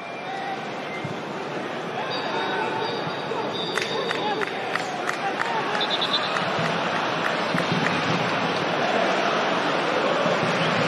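football stadium crowd

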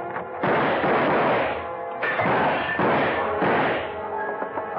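repeated gunshots

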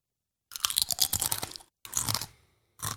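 crunchy snack being chewed

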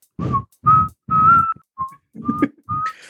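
person whistling a tune

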